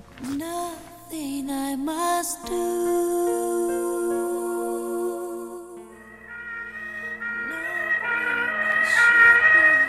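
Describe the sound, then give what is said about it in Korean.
An ambulance siren wails continuously for about ten seconds, its pitch sweeping up and down and growing louder toward the end, with no voices heard. “새벽 2시 희미한 의식 속에서 귀에 아련히 들리는 사이렌 소리 제가 누워있는 곳은 구급차 아니었습니다”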